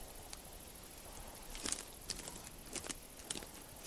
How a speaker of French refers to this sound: Des minutes, des heures durant, le chasseur marche.